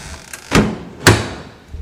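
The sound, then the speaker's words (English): The heavy front door of a mansion on the Lynch estate, in light rain, clunks and thuds as it is rapped on and then opened into the foyer: two sharp wooden impacts about half a second apart with a short echoing tail. No one speaks. “No response as I rap on the front door of the mansion. I let myself into the foyer.”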